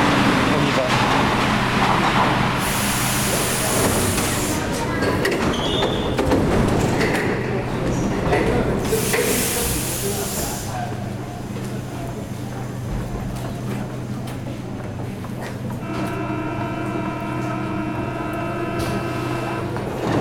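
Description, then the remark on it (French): A metro train rumbles into a station, with bursts of hissing brakes and screeching, then a steady rising electric whine as it settles at the platform, loud throughout. “C'est possible, tiens, voilà un autre train qui arrive.”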